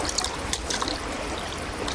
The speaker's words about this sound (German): Hört ihr das? Die paddeln mit dem Brett über den See.